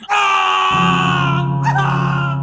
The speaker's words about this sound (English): As I drove the knife repeatedly into his abdomen, the pained look of confusion that painted his face slowly twisted into a horrific scream.